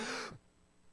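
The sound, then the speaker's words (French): A quick, deep breath drawn in sharply, a rushing airy inhale that stops abruptly and gives way to near silence as the breath is held. “Tu sais, l'affaire qui n'est pas supposée marcher, de prendre ton respect 10 secondes, puis si tu tousses pas, là, là, Je sais que ça marche pas, mais je l'ai fait pareil.”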